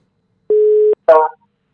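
A single steady telephone ringing tone, a short clear beep heard while a call is placed to a cabin and camping centre in Kabelvåg, Lofoten, Norway, followed by a brief burst of a voice or line noise as the call connects.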